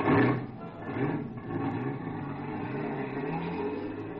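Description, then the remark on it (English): A car engine is started and revs up as a car is driven off, its droning pitch climbing in waves as it accelerates, loud throughout with a steady rumbling undertone. “Some poor guy was just starting his car. I grabbed him by the neck and threw him out, and I took the wheel.”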